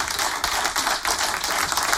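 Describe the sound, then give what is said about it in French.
An audience applauds steadily, a dense wash of many hands clapping at a lively, even level with no voices standing out. “On applaudit bien fort Totem.”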